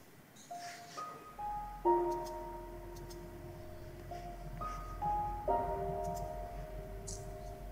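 A gentle, melancholic video game soundtrack plays, with soft chime-like piano notes ringing out one by one over a low, sustained drone. There are no voices.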